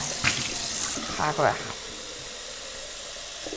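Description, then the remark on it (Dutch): A steady hiss of running water pours from a tap for the whole stretch as a water bottle is filled, while a man speaks briefly over it near the start. “Ik ga mijn waterfles vullen en dan eh,”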